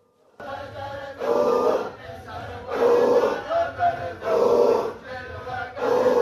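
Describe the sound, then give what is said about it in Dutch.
A circle of men wearing turbans chant together in a Sufi ritual, loud, their rough, forceful, almost animal-like voices rising in repeated rhythmic surges roughly every second and a half. “We gaan een stukje van zo'n ritueel horen.”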